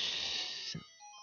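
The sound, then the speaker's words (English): A short electronic phone ringtone playing a video game jingle chimes a few quick melodic notes, faint and tinny, following a brief burst of hissy noise, with no one speaking. “I think that was my phone kind of a cool little Zelda thing.”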